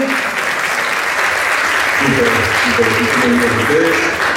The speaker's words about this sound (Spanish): lo recibimos con un aplauso desde México.